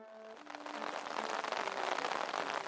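Rain begins to fall, quickly building from a few faint tones into a dense, steady hiss of drops that holds loud and even to the end.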